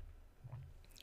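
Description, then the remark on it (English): A quiet gulp of water: a soft wet swallow in the middle followed by a faint squishy mouth sound, with no talking. “gosh, I needed water. It's so good.”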